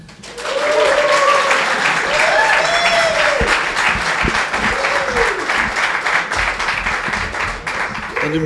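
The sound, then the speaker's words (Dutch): A crowd at the Maker Fair bursts into sustained, loud applause for an arriving guest, dense clapping filling the space for several seconds, with faint cheering and voices mixed in beneath it. “En nu, moet ik maken dat ik tegen dat applaus gedaan is toen ik op de stoel zit.”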